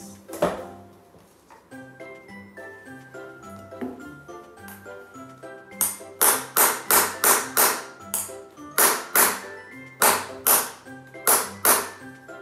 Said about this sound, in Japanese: 見てまあここ前の方ギリギリ前の方がちょっとカーブが合ってないよっていうことなのでハンマーのこの背を使ってね叩くことでこの部分の反りをつけていきます